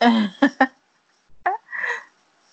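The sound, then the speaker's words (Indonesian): A short run of coughs: a voiced cough followed by two quick, sharp bursts, then after a pause one more cough trailing into a breathy, rasping exhale. “Batuk siapa tuh yang batuk?”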